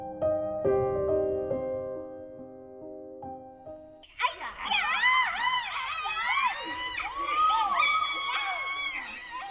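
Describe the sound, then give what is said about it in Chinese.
After a few seconds of steady tones, a burst of excited children shouting and shrieking erupts, many high, wavering voices overlapping loudly and continuously until the end. “主人公感觉到孩子们一定是发生了什么事情，他们都很兴奋，嘴里大声喊叫。”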